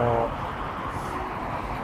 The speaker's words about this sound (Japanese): ちょうどね、ロードサイド沿いなんで、ちょっとあの、いつも通り、車の音が入っちゃうとは思うんですけれども、まあ、すいませんが、ご容赦いただければとね、思っています。